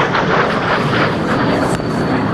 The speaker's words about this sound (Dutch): Ja, je hoort een uh, kaliber kruisraket eerst overvliegen. Hè. Je hoort uh, motor van de kaliber eh, kruisraket. En dan even later ontploft die.